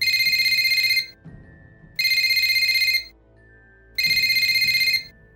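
A telephone rings three times in a steady rhythm, each loud, warbling burst lasting about a second with a short pause between, over a faint low background hum and no voices.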